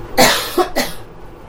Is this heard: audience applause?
no